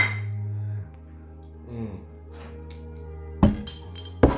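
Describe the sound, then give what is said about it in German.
Two bright glass clinks ring out, about a second apart, as drinking glasses are touched together in a toast, over a low steady hum with faint background murmur. “Ich sag erstmal, war Gläser vom Tisch. Und Stößchen.”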